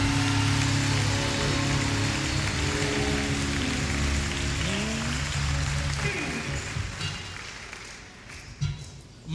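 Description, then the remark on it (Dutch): Loud, sustained applause from a large crowd giving the Lord a round of applause during a Christian sermon, a dense wash of clapping over held musical chords, with voices mixed in; it thins slightly near the end. “Als u dat geloof geeft, de Heer, een daverend applaus.”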